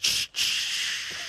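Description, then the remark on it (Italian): A voice imitates the air-brake hiss of a 16-gear truck during a gear change: two loud bursts of breathy hissing separated by a brief gap, the second one longer and trailing off. “No, ma quando scusami, cambi le marci fa così.”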